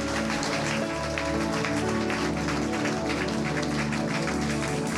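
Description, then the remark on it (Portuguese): A crowd at a sermon claps steadily and loudly for several seconds to applaud Jesus, a dense wash of many hands, over sustained low musical tones from a keyboard or organ. “Se for Jesus, levanta a mão lá em cima e aplauda ele, porque ele chama e ele coloca.”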